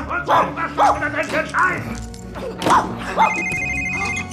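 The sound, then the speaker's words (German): A mobile phone starts ringing near the end with a steady, bright electronic tone, following a run of sharp barking sounds. “Was zur Hölle war das? Du hast dein Handy nicht auf lautlos gestellt.”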